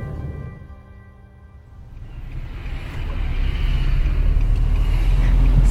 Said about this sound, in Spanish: Sí, ya, estamos llegando, nada más déjame me orillo para poder bajar a... que baje seguro. Hay bastante tránsito por aquí.